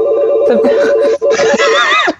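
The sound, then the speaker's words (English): A telephone rings in a steady, rapidly pulsing trill, loud, while voices talk and laugh over it throughout. “just just pick up the phone.”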